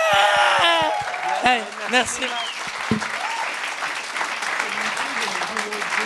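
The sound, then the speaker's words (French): An audience applauds and cheers to welcome the evening's guests, a dense, steady wash of clapping that lasts throughout, with high whoops and shouts rising early on and a voice speaking briefly over the noise. “Euh, ce soir, on accueille, commence à applaudir tout le monde. On fait du bruit.”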